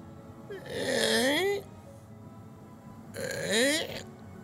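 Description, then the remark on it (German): A voice imitates a drawn-out creak from the upper floor of a tower twice, each a bending, groaning tone lasting about a second with a short quiet gap between them, fairly loud. “Irgendetwas knarzt, irgendetwas mm. bewegt sich in der oberen Etage.”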